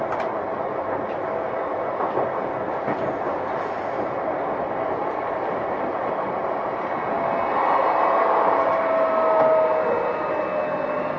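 A Tokyo Metro 05 series wide-door subway train running steadily between Nakano and Nishi-Funabashi, with a broad continuous rumble and rattling wheel noise that swells louder partway through, plus a thin high whine near the end. No voices.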